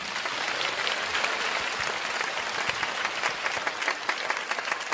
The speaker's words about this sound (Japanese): 会場の皆様今一度大きな拍手をお願いいたします